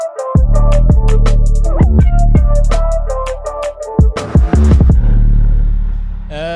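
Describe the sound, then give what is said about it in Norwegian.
A short, punchy musical jingle with loud bass hits and bright synth stabs in a quick rhythm, ending in a brief sweeping noise at the close. No voices. “Jeg tror vi tar en liten jingle-kjapp jingle imellom.”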